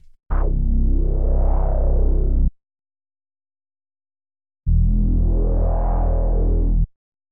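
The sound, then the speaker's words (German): Two sustained synthesizer bass notes, an IDN bass from Omnisphere, with a Filter Mini filter sweeping up and back down to make it warmer, each about two seconds long and separated by a pause. The tone is loud, warm and rounded, with no voices over it. “Ich wollte es aber ein bisschen wärmer haben und deswegen kommt das Filter drauf.”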